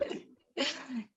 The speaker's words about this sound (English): bless you